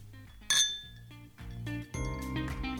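A bright glass clink rings out near the start, a toast, followed by lingering tonal ringing and soft low background sounds.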